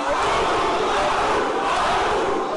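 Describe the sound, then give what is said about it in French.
A large crowd of Gilets jaunes (yellow vest) protesters roars a loud, sustained shouted response in unison to the call "Gilets jaunes, quel est notre métier", a dense wall of voices that holds steady for a few seconds without individual words standing out. “Alors excusez-moi, à Tulle, ils étaient 300, ils ont fait plus de bruit que vous.”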